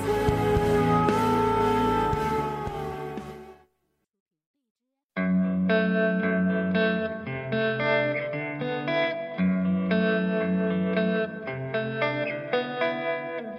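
A band's recorded song plays, loud with dense layered instruments, then drops to a brief silence of over a second before a new passage starts with a steady, pulsing rhythm.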